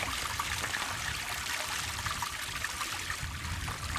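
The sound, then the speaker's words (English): A small Scottish burn trickles steadily out of a hillside, a continuous bright babble of running water with low gurgles underneath, with no voices. “A little burn just trickling out of the hill.”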